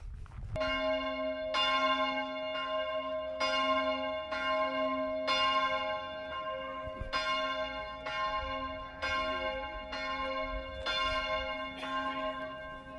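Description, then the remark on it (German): Church bells ring out steadily at noon, about ten evenly spaced strikes with rich, lingering overtones and a sustained hum beneath, heard alone with no talking. “Oh, bimmelt noch weiter. Weiß nicht, ob ihr die Glocken auch noch hört.”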